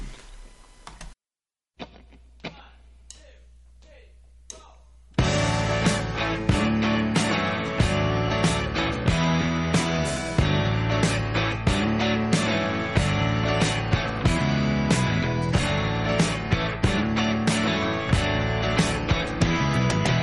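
A rock song plays loudly, opening with a few sparse, clicky hits over near-silence before the full band kicks in with a steady, driving beat that continues to the end.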